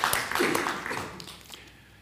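An audience claps together in a dense, crackling burst of applause that gradually thins out and fades over about two seconds.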